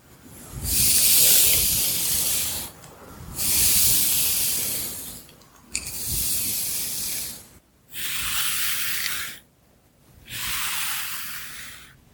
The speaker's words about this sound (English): Okay, I made it to the end here. I'm going to brush either side of your hair. So I'll start here on the right side. And Okay, I'll go over here to the left side.